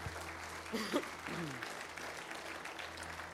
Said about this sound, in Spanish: Santiago, amén. Aplaudámosle al Señor.